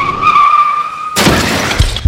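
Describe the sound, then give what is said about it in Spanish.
In a radio advertisement for Qualitas car insurance, a car's tires skid with a steady high-pitched squeal for about a second, then an abrupt, loud crash of smashing metal and shattering glass follows, with scattered thuds as debris settles. “Hay accidentes que pueden ser muy lamentables.”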